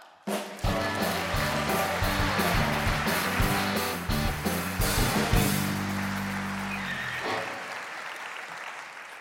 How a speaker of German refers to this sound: Riesentobender Applaus für Matthias Dritter!